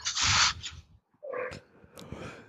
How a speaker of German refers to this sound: Wir hören auch immer, ich glaube, das ist dein Hund, der da im Hintergrund bellt, ne?